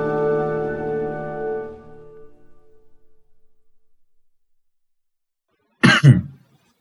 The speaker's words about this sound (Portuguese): Desculpa. Não, isso foi uma tosse.